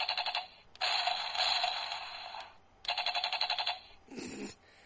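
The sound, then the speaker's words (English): Bright electronic sound effects from a mech warrior toy: rapid pulsing beeps and a sustained buzzy synthetic tone, alternating in bursts, followed by a short lower mechanical whir as the toy's cockpit opens. No one speaks. “he's got sounds. The ah cockpit open.”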